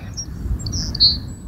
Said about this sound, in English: You hear the birds there, Travis?